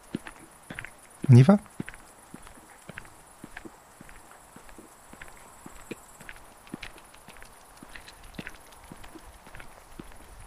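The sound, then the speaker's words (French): Steady footsteps crunch along at an unhurried walking pace outdoors at night, each step a crisp click, with a faint high hum in the background. A voice speaks briefly near the start. “Alors faisons quelques pas ensemble.”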